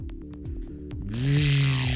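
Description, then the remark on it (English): A chainsaw engine runs and revs, its buzzing drone rising in pitch and growing louder and harsher partway through, then holding a steady high whine. No one speaks. “That's a chainsaw noise.”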